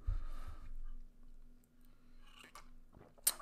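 Quiet mouth sounds of someone sipping hot tea and swallowing, with soft wet gulps followed by a brief sharp click near the end. No one speaks.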